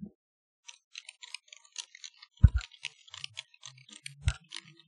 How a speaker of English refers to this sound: and uh, I want to go ahead and you know, since she loves that those keyboards, we're gonna give her a uh, 21 uh, key clack salute.